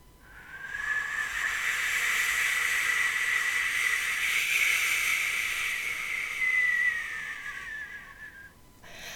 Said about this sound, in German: Oh, was bläst uns denn da für ein kalter Wind ins Gesicht?